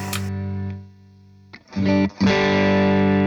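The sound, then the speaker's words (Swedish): Electric guitar played through a dynamic distortion pedal: a sustained distorted chord rings and fades, then after a brief gap two loud, gritty strummed chords, with no voices. “Jag tänker också så här, den heter ju Dynamic Distortion och jag vet inte om det innebär att man ska kunna spela lite anslagskänsligt eh, eh, eller ha mycket olika spann på volymkontrollen.”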